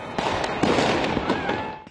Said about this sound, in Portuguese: Luzes e fogos de artifício marcaram o Réveillon dos alemães no portão de Brandemburgo, o principal símbolo da capital Berlim.